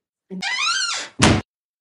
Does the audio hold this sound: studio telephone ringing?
no